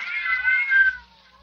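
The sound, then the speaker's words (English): About half a dozen cats, locked in a room with a woman, meowing in a drawn-out, high, wavering yowl that holds for about a second before fading into quiet. The meows are fairly loud and no one speaks. “Yes, some fiend, knowing her deadly fear of cats, has locked her in here with half a dozen of them.”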